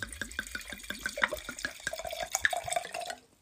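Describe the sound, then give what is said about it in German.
Red wine glugs out of a bottle into a glass in a quick, steady rhythm of gurgles, then a smoother trickle with a rising pitch as the glass fills. No one speaks. “Ich ähm, gönne mir jetzt mal ein Glas Wein”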